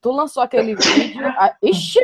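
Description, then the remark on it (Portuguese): A single sharp sneeze bursts out in the middle of lively conversation, with people talking and laughing around it. “Saúde.”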